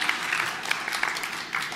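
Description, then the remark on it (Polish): An audience claps together in a steady, dense patter of many hands, moderately loud and sustained for the whole moment, with occasional sharper claps standing out and no voices. “Wielkie brawa, że zawsze.”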